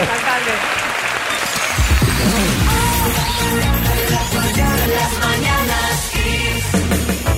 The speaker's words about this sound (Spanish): Un aplauso para el alcalde.